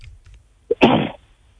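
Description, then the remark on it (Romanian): A single sneeze: a brief voiced catch of breath, then a loud, sharp, breathy burst lasting about a third of a second, with only faint background noise around it. “Sănătate”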